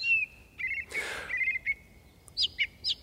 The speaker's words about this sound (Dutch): Nou, de zanglijster, het enthousiasme vind ik van de zanglijster gewoon echt heel mooi. De, de, de merel is, ja, ik ga de merel toch ook weer noemen, is mooie, warme zang. Maar de uitbundigheid van de zanglijster